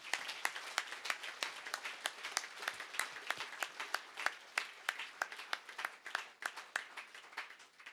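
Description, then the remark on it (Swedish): An audience applauds steadily for several seconds, many hands clapping in a dense, crackling patter with a few sharper claps standing out, and no one speaking over it. “Kan jag ge dem en applåd?”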